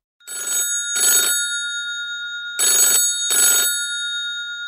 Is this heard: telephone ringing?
yes